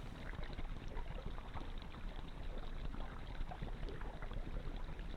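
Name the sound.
ocean waves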